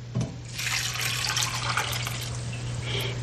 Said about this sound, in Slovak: Takže pridáme huby, nalejeme vodu. Vodu vždy podľa toho, akú chcete mať hustú kapustu. Hej, ja chcem uvariť 6 litrov tej kapustnice. Takže si nalejeme vodu.